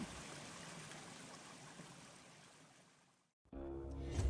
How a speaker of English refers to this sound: The pitter patter of the raindrops stopped too. The only prominent sound now was of the runoff water from the slanting red tiled rooftop. The water drops from the leaves were rhythmically finding its way down.